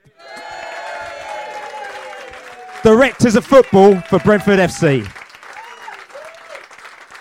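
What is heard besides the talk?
audience applause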